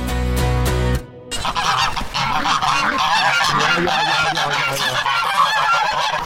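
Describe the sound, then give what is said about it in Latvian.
A loud flock of farm birds kept together with goats honks and calls nonstop, many goose-like voices overlapping in a busy chorus, following a short burst of a steady tonal sound at the very start. “Putni ir kopā ar kaziņām.”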